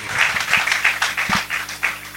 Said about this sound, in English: Shall we put our hands together and give the Lord a mighty clap offering?